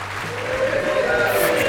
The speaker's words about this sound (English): Look, I think it's it's time to take the studio audience off mute. We've got at least 400 people with us today as we celebrate Aussie music. Come on, folks, give us a cheer.